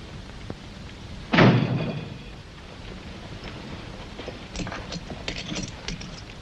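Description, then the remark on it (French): A door shuts with a single solid thud that rings out briefly, followed by faint shuffling and small handling noises amid otherwise quiet surroundings. “Fermez la porte et ôtez votre chapeau.”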